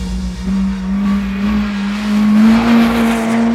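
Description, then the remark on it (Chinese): A racing-car engine sound effect hums steadily for a few seconds, its low pitch creeping slightly upward as it revs, with a rushing, airy noise layered over it and no voices. In a children's story, it is the engine of the Woof Battle Car driven by a dog detective. “噔噔噔噔噔噔噔，登场的是一个狗狗警探，开着帅气的汪汪战车。”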